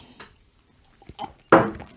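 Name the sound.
glasses clinking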